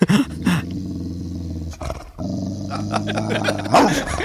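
The dog Polly growls low and continuously at home, breaking into a couple of sharp barks near the start and again near the end, with a brief lull in the middle.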